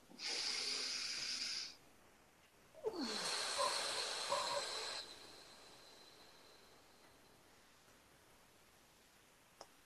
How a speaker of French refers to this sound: Une respiration.